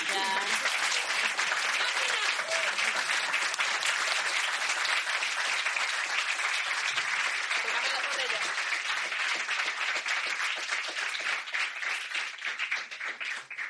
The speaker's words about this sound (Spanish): Bueno, ellos se despiden, yo me quedo y ahora viene la mesa redonda con nuestros compañeros de otros podcasts, así que voy a pedir que por favor se unan a mí bueno, démosle un aplauso a ellos primero, pero...